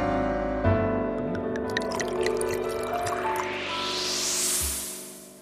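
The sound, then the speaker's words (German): Whisky glugs into a glass, the splashing pitch climbing steadily as the glass fills for a couple of seconds before stopping abruptly; no one speaks. “heute gibt's wieder einen leckeren Tropfen ins Gläschen.”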